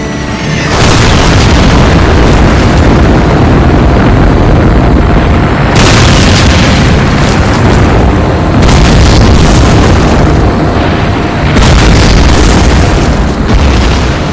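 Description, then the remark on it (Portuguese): Heavy bombs and incendiary devices dropped by British and American aircraft on the abbey of Monte Cassino explode one after another in a loud, continuous barrage, deep booming blasts rolling together with fresh heavy bursts every few seconds and no voices. “E na manhã do dia 15 de fevereiro, 256 aeronaves britânicas e norte-americanas partiram para o ataque e mais de mil toneladas de bombas e dispositivos incendiários foram lançados contra a abadia de Monte Cassino.”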